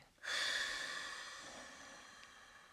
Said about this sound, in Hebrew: בוא ניקח כמה נשימות, שאיפה מהאף ונשיפה מהפה.